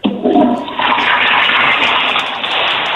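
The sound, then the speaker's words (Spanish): A toilet flushes in a bathroom, a loud gurgling rush of water that starts abruptly and keeps churning steadily for a few seconds with no one speaking. “Descarga el baño, por favor, que se escuche el flush para confirmar que usted se encuentra en el baño.”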